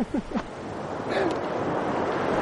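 A steady, loud rush of sea waves washes on without pause, a broad hissing roar. A brief burst of voice is heard at the very start.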